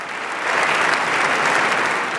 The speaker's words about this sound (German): Ein letztes Mal die Raute. Die Ära Merkel ist zu Ende. Applaus im Bundestag, um sie zu ehren. Viel Applaus.